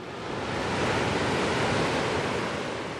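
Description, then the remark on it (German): Steady roar of sea surf washing against the shore at the coast by the small island of San Juan de Castellugache, joined to the coast by a grey wall through the sea; a broad continuous rush that swells slightly in the middle, fairly loud, with no voices. “Eine graue Mauer schlängelt sich durchs Meer. Sie verbindet die kleine Insel San Juan de Castellugache mit der Küste.”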